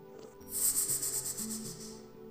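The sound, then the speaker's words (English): A person breathes out in a long, steady hiss, imitating a snake during a breathing exercise; the sharp airy sound lasts about a second and a half with slight pulsing. “But sometimes it sounds like a snake, like this.”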